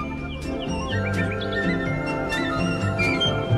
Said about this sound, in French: Ah, le rossignol. Ça chante très très fort. Donc euh, voilà, il est à peu près à 70 mètres. Il y a, trois rossignols en même temps qu'on entend d'ailleurs.